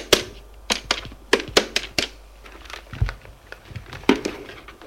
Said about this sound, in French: Le pauvre père sort du salon pour aller à son bureau. Prends prend son téléphone et fait un numéro.